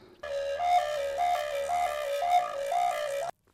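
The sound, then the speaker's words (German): A recorder played with flutter-tonguing, rolling an R in the mouth with the lips closed around the mouthpiece; its rolled, buzzing tone moves through a short phrase that keeps stepping up to a higher note and back, loud and steady for about three seconds. “Dabei rollt man das R im Mund und schließt dann die Lippen um das Mundstück und erzeugt so den Ton, aber mit diesem R durch die Flöte durch.”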